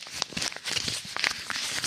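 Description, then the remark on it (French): Dry, scratchy rustling of a piece of paper being rubbed to fake an ASMR scratching sound, in a quick irregular series of crinkly strokes and soft crackles, fairly quiet and continuous with no voices over it. “Euh, oui, un épisode sur deux maintenant, on, fait une blague sur l'ASMR et je ressors généralement, tu sais, juste un morceau de papier, tu fais comme ça.”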